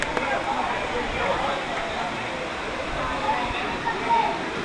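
waterfall

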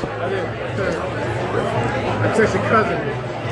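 crowd chatter

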